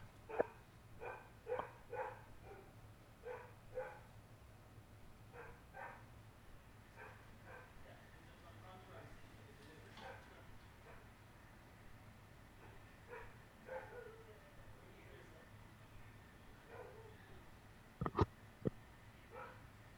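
A dog barks over and over in short, quick bursts, fairly faint, against a steady low hum, with a sharp click near the end.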